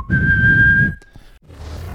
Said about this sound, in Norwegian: Skal jeg plystre oss i gang? Ja, ja, må gjøre det.